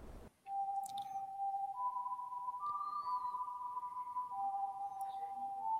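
A steady, high whistling drones on in a forest, with several sustained pure tones overlapping and shifting slightly in pitch over a faint hiss of background noise. No one speaks.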